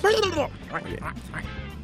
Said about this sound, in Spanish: Siguió recobrándose... ya paseaba por el caserón, atendía el hambre de las gallinas y de los cerdos. Ruido de gallinas y de cerdos.